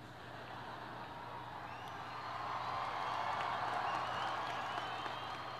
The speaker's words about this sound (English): that shouldn't get such a big cheer.